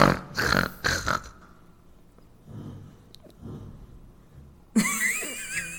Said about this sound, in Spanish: imagínense que hay un perrito junto a ustedes durmiendo. un bello Esperemos que no se escuche como tanto.